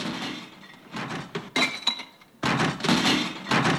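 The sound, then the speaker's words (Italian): Garbage bins of the AMIAT service being emptied at night in Turin: loud bursts of clattering and crashing, with clinking glass and hollow thunks, in several heavy surges separated by brief lulls. “Questi sono i bidoni dell'amiate che vengono svuotati di notte.”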